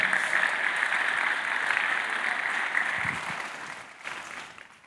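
A crowd applauds steadily, a dense, even wash of many hands clapping that holds strong for several seconds before gradually thinning and fading toward the end.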